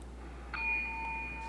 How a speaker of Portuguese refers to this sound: Agora tem uma campainha aqui. Quando vocês exagerarem um pouco, passarem dos limites aqui nesse programa, que eu não aceito mais.